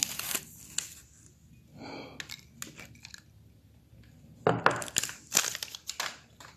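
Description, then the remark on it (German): Wet, crisp crunching of someone biting into and chewing a pickled gherkin, in irregular bursts with brief quiet pauses between bites, no talking. “Aber ein Gürkchen, ich esse jetzt ein Gürkchen, das ist gut für die Nerven.”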